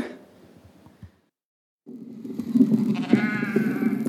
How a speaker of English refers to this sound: I think it goes for like five minutes of him saying that and the sheep running around being like, Yes, feed me, feed me.